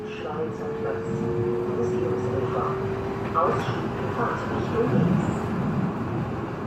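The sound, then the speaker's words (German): Steady rumble of a Frankfurt U-Bahn subway train in motion with a sustained whining motor tone, heard from inside the car, with indistinct voices murmuring underneath. “Zuweilen setze ich mich in Frankfurt in die U-Bahn und fahre in die Stadtteile, in denen ich früher gelebt habe und freue mich, dass es diese Stadtteile immer noch gibt und dass sie sich kaum verändert haben.”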